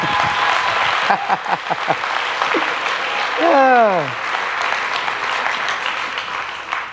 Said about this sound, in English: Clap. Come on.